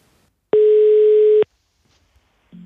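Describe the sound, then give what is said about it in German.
A single loud, steady telephone ringback tone sounds for about a second while calling the head of the Ironman brand in Germany, then cuts off into near silence before a faint new sound begins at the very end. “Und wir versuchen jetzt einmal Oliver Schick zu erreichen.”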